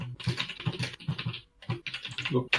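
Rapid, close-up keyboard typing with clicky keystrokes in quick bursts, pausing briefly near the middle before resuming. No one speaks over it.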